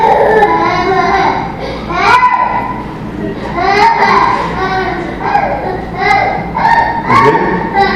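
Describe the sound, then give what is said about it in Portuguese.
A young child cries loudly, wavering wails rising and falling in repeated bursts every second or two, continuing without pause for the whole stretch. “É conseguir vivenciar bem a proposta sem se com o choro da criança.”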